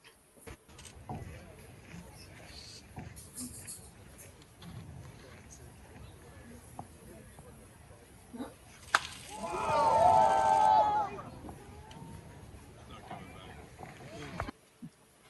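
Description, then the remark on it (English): A sharp crack rings out over a low murmur of voices as Shohei Ohtani hits a home run during his first live batting practice, then a good-sized crowd bursts into a brief swell of cheering with a whistle before settling back to chatter. “I mean, obviously there's not that many people, you know, there right now, but I mean there is a good sized crowd, and you can hear the excitement when he hits that home run.”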